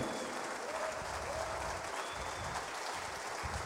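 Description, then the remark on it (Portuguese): An audience at an evening worship service applauds Jesus steadily, a dense wash of clapping that holds at an even level for several seconds, with faint voices mixed in underneath. “Aplauda Jesus aqui essa noite.”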